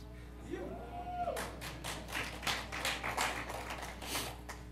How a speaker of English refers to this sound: Those claps will support you the rest of your life all you need is some applause, and you can do it, my friend.